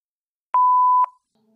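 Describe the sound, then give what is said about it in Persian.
A single steady electronic beep from a home answering machine after its greeting, about half a second long and clear, with sharp clicks at its start and end, followed by near silence and a faint low hum. “Please leave a message after the tone.”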